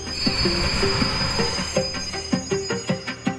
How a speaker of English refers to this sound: As the train arrived, the crowd surged forward. I was too close to the platform edge, lost my balance, and fell into the path of the oncoming train.